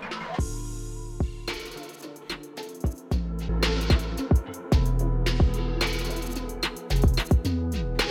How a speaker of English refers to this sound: What you're hearing right now is an unmastered track compared to a, a professional master track. Mastering in the final boost and polishing music needs to sound radio ready.